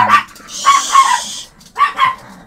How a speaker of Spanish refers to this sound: Perdón, amigos, estos perros son una vergüenza, caray.